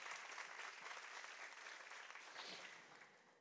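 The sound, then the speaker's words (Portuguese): An audience applauds Jesus at a morning service, steady dense clapping from many hands filling the room at a consistent loudness, tapering slightly toward the end with no voices over it. “Aplauda Jesus nessa manhã.”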